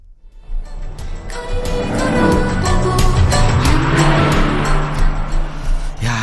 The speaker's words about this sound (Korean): 좀 소리가 잘 들리게 창문 열고요. 옆차를 따라잡습니다. 집중해서 들어주세요. 이제 기회는 한 번입니다. 옆에 차 지나갑니다. 음악 소리 들려요. 옆차에서 어떤 노래 듣고 있을까요? 들어보세요.